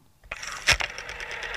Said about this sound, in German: Was ist denn unten links? Das ist das Telefon.